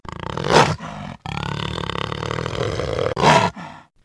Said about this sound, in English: Oh, and I use this sound effect a lot to end shows, but it's actually a jaguar.